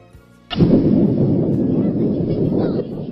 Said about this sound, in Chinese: 不知过了多久，隐隐雷声把小伙子惊醒了。